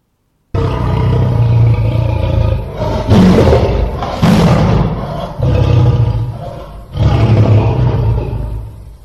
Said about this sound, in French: Ah, les lions, les lions, les lions, les lions, les lions Hein Quand ça grogne, un lion...